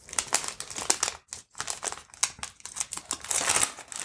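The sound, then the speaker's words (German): A bag of fair-trade coconut blossom sugar from Regenbogenkreis crinkles and rustles in a steady run of crisp, bright crackling bursts, with a brief pause partway through, then continuing. No one speaks. “So, und jetzt nehmen wir unseren wundervollen, fair gehandelten Kokosblütenzucker von, von Regenbogenkreis.”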